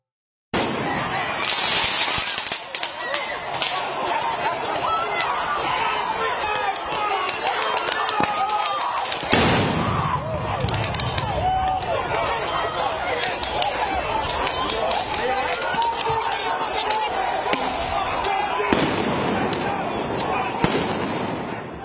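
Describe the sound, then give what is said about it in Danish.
A chaotic outdoor scene in Washington D.C. in front of the White House on a Monday, a dense crowd of protesters shouting as National Guard military police use tear gas cannons, flash grenades and rubber bullets, repeated sharp bangs and pops, including a loud blast near the middle, and people running amid the noise. “her i mandags, da militærpoliti fra Nationalgarden satte ind med tårgaskanoner, flashgranater og gummikugler mod demonstranter foran det hvide hus.”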